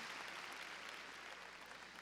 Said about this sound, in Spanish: A ver, démosle palmas fuertes a nuestro Señor, gloria a Dios. Gloria a Dios.